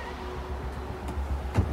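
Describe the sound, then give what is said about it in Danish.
A white Audi pulls into a bus stop bay on Hobrovej on the outskirts of Aalborg at about half past nine in the evening and comes to a stop, its low engine rumble steady, with a brief soft thump near the end. “Klokken er cirka halv ti om aftenen, da en hvid Audi kører forbi busstoppested, inden føreren af bilen demonstrativt vender om for at køre ind og holde stille i den lomme, der er forbeholdt busserne.”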